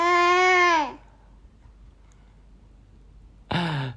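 A baby lets out a loud, close wailing cry that sinks in pitch and breaks off, followed by a few seconds of quiet before another sharp cry bursts out.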